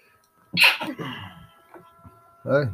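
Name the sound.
sneeze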